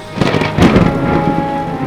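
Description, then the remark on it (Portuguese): A loud thunder crack rolls into a sustained, rumbling roar with a hiss of steady rain underneath, dramatic, with no voices. “Música de suspense alta, raios.”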